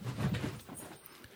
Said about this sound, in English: So, you know, the, the, the the dog chased the cat there for a minute, like literally for you people listening. Yeah, my dog just went after the cat, and it just kind of took us off center for a minute.